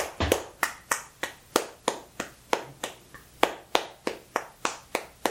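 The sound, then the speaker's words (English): A long run of steady, rhythmic hand claps filling a pause while a new question is thought up, about sixteen sharp, crisp slaps at an even pace, each fading quickly before the next, with no one talking. “I like the really long clap pauses while you're trying to come up with a new question.”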